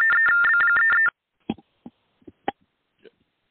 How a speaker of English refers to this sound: There was a little bit of interference there, but sorry for that.